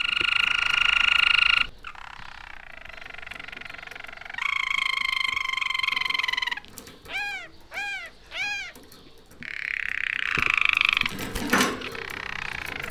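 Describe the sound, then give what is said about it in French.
A caged songbird sings loudly in a long, varied run of phrases: buzzy sustained trills, steady whistled notes and a series of quick swooping calls, with no talking. “Celui-ci chante beaucoup plus et beaucoup mieux.”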